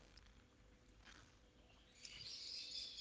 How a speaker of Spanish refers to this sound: Escucha qué hermosos pájaros. Están celebrando la poesía, sin duda alguna.